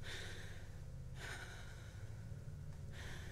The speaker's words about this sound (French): Je respire fort, fais quelques mouvements censés m'agrandir le torse et jeter un sort à la boule d'angoisse,